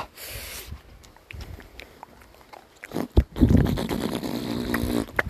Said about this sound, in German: Leute, der Motor ging gerade wieder an. Der Motor ging gerade wieder an. So ein bisschen.